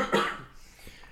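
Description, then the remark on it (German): A single sharp cough bursts out near the start, loud, then trails off into quiet breathy noise with a faint click at the end. “Gesundheit. Danke”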